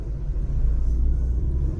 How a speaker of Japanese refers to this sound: まあ、そういうところをぼつぼつこう車で向かってます。あと40分ぐらいしたら着くかな、大体ね。